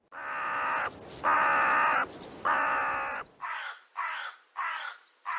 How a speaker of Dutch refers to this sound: ja, kraaien heb je daar dan snel bij. Dat zijn zo vogels die ze wel zangvogels noemen, maar die eigenlijk helemaal niet goed kunnen, kunnen zingen.